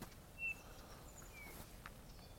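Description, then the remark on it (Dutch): A Eurasian bullfinch gives a single soft, melancholy piping whistle, brief and faint over a steady background hiss, with a few even fainter thin notes afterward. “Hoor je dat een Beetje melancholische fluittoontje. Goudvinken.”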